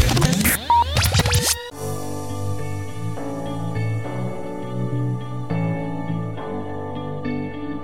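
A brief burst of scratchy, swooshing noise gives way to the instrumental intro of a pop song played on Rádio Vyšší hlas: soft, sustained keyboard chords shifting at a steady pace, with no singing yet.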